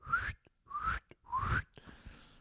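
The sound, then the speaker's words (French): Someone attempts funny whistles with the mouth: three short rising whistles, each sliding upward in pitch with breathy air noise, followed by a fainter, shakier attempt that trails off. “J'arrive pas, j'aimerais faire tous les bruits de sifflet marrant.”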